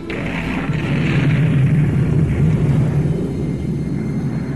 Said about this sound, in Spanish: Luego una tremenda explosión sacudió a todo el campamento como un terremoto.